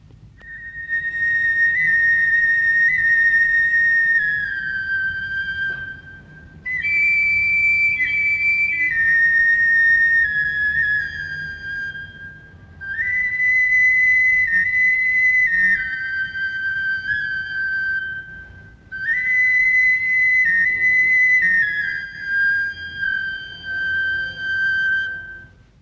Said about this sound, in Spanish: Enseguida escuchamos una breve melodía ejecutada con una flauta de barro de cuatro agujeros de Jalisco.